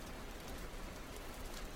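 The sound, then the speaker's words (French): Steady rain falling, a dense, even hiss of drops pattering on a surface with a low rumbling undertone. No voices, just the continuous wash of rainfall at moderate volume. “Aujourd'hui, j'aime regarder la pluie tomber”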